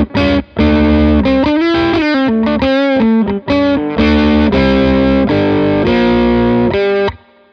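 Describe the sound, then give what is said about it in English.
A distorted electric guitar, played on the back pickup, plays a punchy riff built on double stops, two notes struck together, with hard picked attacks and brief gaps between phrases, loud and alone with no voices. “which is basically the same riff, but he plays on the back pickup and with a lot of attack in the pick.”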